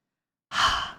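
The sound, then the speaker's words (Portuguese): After a moment of silence, a single soft, breathy exhale from a voice, imitating the aspirated H of the Hebrew tetragram, fades out over about half a second. “Esse H é aspirado.”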